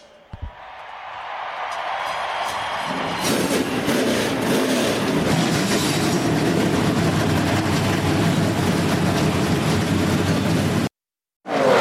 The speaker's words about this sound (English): All right, gentlemen, start your engines.